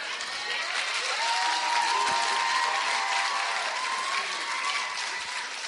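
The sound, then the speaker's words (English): An audience applauds a powerful testimony steadily, a dense wash of clapping that holds at an even, fairly loud level for several seconds, with faint cheering woven through it. “Oh, put your hands together for a powerful testimony.”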